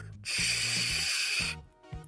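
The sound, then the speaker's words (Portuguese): A voice imitates tinnitus with a loud, steady, high-pitched hiss held for over a second, like a pressure cooker venting, cutting off abruptly with faint breaths around it. “Minha cabeça parece que tem um, uma panela de pressão dentro. Meu tinnitus não é daquele que fica um barulhinho assim, não.”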